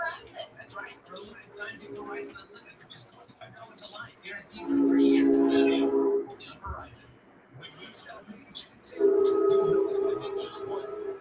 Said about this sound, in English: Oh, here comes another train.